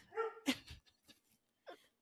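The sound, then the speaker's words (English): A dog gives a few short, sharp barks, starting with a high yelp, then a louder bark and one more after a brief pause, with no talking. “My dog agrees.”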